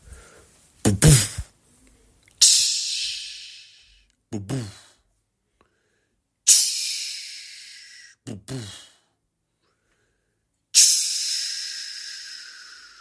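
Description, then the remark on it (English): A voice imitates fireworks three times, each a short whistling launch followed by a loud, crackling hiss that fades out slowly, with brief pauses between bursts. “And they said, Is that what I think it is? It's fireworks.”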